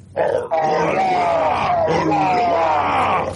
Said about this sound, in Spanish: Los orcos gritaron en un coro bien ensayado.